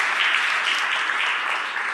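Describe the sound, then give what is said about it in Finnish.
Steady audience applause at a church service in Finland, welcoming visiting guests: a dense wash of many hands clapping at an even, sustained loudness for the full two seconds, with no voices rising above it. “Antaa aplodit.”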